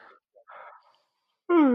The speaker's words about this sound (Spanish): Perdón el bostezo, ¿eh? que ya estamos grabando a las ocho y media de la noche y aquí seguimos.